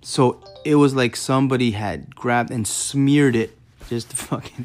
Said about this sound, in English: pardon my phone